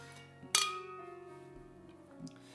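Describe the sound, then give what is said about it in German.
A single bright clink of glasses touching in a toast, ringing out with a lingering shimmer that slowly fades, with a softer tap near the end and no talking. “Okay, Prost.”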